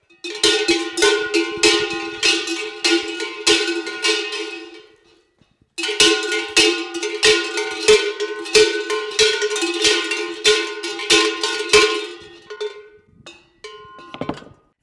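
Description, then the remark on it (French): Two cowbells, hung on a person's belly with a belt, jangle as the person jumps: dense, irregular bursts of clanking metallic strikes, loud and continuous, pausing briefly around the middle before resuming and thinning out to a few scattered clanks at the end. “ça fait quand même quelques années que j'ai tendance à prendre surtout ces deux cloches”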